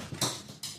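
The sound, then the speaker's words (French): A dog shifting around, two quick scraping, tapping bursts like claws or paws on a hard floor, with a soft shuffle between them and no voices. “S'il y a des bruits qu'on entend, c'est mon chien.”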